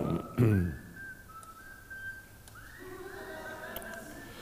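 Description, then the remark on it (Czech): A phone ringtone made of whistled tones plays, sustained gliding notes that rise and hold for several seconds after a brief burst of noise at the start. “To asi neříká ta baba, to někomu tady píská tak to jsem zapomněl říct, že si mají vypnout telefony.”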